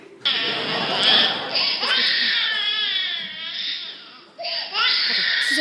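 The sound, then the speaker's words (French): A baby cries loudly in continuous wavering wails, pausing briefly for breath near the end before starting again. “j'arrive tout de suite, Ça va mon bébé, j'arrive, maman est là, je suis là, je suis là, je suis là, j'arrive.”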